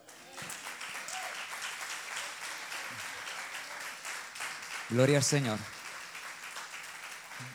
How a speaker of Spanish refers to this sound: Y yo le daría un aplauso al Señor.